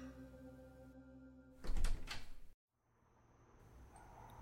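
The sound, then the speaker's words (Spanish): A woman knocks in a quick series of loud knocks on the door of a home, cutting in over soft background music, followed by a sudden drop into near silence and faint room noise. “llamó a la puerta de la vivienda”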